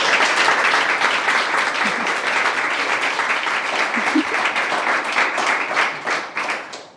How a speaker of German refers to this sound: Applaus